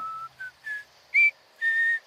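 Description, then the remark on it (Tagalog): A person walking among trees whistles a short series of five clear notes, as if calling the wind, rising and falling in pitch with brief pauses between them, the later notes louder and held longer. No one speaks. “Sumisipol din ako na parabang nagtatawag ng hangin.”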